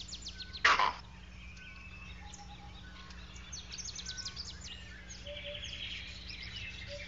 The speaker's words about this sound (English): Vervets understand the starling's vocabulary. The bird shrieks a warning, shh, danger on the ground, and the monkeys repeat it using their own term, and everyone runs for it.